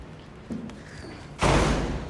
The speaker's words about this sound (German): Ich bin jetzt auch zu Hause angekommen. Meine Tür öffnet sich mit so einer App. Da muss ich auf die App gehen und dann auf den Anschaltknopf. Und jetzt ist die Tür offen.